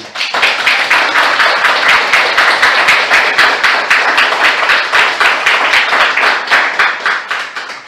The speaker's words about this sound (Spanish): Bueno, pues sean bienvenidos todos, un fuerte aplauso, Chavá chalón.